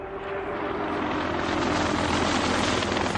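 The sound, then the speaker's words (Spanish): A helicopter lands on a helipad, its rotor thudding in a steady, fast rhythm over a loud, continuous engine whine that holds strong throughout. “Un helicóptero aterriza en un helipuerto.”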